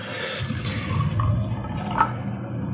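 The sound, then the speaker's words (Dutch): Wine pours into a glass in a steady, low gurgling stream for a few seconds, with a few brighter splashes and drips on top and no voices. “Het ziet er goed uit. Ja. Het geluid alleen al.”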